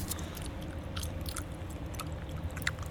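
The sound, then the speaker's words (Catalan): Rapid, continuous wet chewing with frequent small smacks and clicks over a low steady rumble, as if someone is working gum frantically. “Veure'ls enganxats arreu em fa pensar en els milers de boques que els mastegaven de manera frenètica. El sento!”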